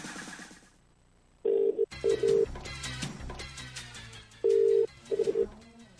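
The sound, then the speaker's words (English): An outgoing call's ringing tone as a radio show rings a caller live on air: low, steady electronic purrs in short repeated bursts, loud and clear, with a busy music bed running underneath after the first ring. “Ringing it. It's calling.”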